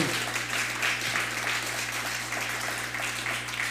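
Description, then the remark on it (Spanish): An audience claps steadily as a show goes on air live on YouTube, a dense, continuous patter of many hands with no pause, carried over a low constant hum. “Vamos a darle un fuerte aplauso a todos los que nos están viendo por este medio.”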